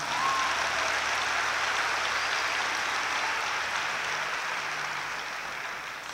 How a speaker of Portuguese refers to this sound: Você pode dar uma salva de palmas bem forte?